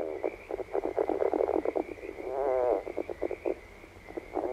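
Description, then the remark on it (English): A red-legged frog calls in a run of quick, stuttering croaks, with a longer rolling, trilled note partway through, set against a faint steady background hum and no voices. “Red legged frog.”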